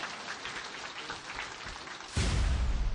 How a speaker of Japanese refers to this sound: ゲストの方々にもう一度あの温かい拍手をお願いいたします